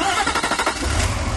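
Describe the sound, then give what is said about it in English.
A Cummins V8 turbo diesel engine in a 2016 Nissan Titan XD truck cranks with a quick run of rhythmic pulses, then catches and settles into a deep, steady, loud rumble. “This is the sound of the Cummins V8 turbo diesel in the new 2016 Nissan Titan XD.”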